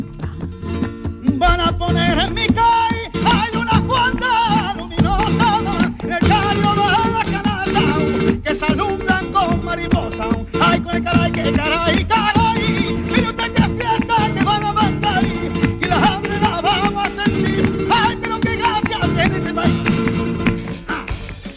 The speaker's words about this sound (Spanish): lo que produce es un debate que lleva a la siguiente llave de oro del cante, que suena así, es …